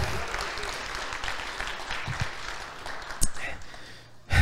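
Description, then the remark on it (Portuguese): An audience applauding the Lord in a steady, dense patter of many hands clapping, with a few louder claps near the end and faint voices mixed in underneath. “Dão um glória a Deus, aplauda o Senhor.”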